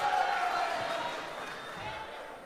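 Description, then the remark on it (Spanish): Sustained applause fills a large chamber in Colombia as members applaud a decision they have just taken: a dense steady patter of many hands with a murmur of voices mixed in, holding fairly even throughout. “Aplauden como focas.”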